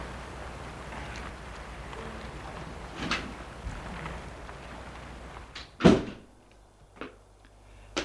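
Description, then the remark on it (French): A woman opens the heavy door to the passageway of an old, run-down apartment building; it creaks and thuds open around the middle, followed by a couple of lighter knocks, over a steady low rumble of background noise that drops away after the door. “Et elle va ouvrir une porte d'une allée d'un vieil immeuble délabré.”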